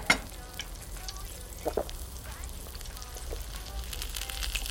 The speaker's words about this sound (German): Drei Wochen früher, Berlin, ein Imbiss unweit der Sophie-Charlottenstraße.